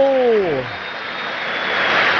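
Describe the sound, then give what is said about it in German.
A steady wash of crowd applause for Cádiz at the Nuevo Mirandilla stadium, a broad hissing roar that holds at an even, fairly loud level throughout, with a brief falling voice-like tone at the very start. “Es gibt trotzdem Applaus.”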